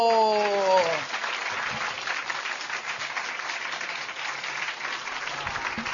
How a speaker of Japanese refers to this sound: 本田健君はもう来られてますかあ来られてますね大きな拍手でどうぞ